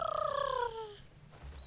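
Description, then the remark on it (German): A single eagle cry rings out loud, a warbling call that slides downward in pitch and breaks off after under a second, leaving only a faint background hum. “Albanische Adler.”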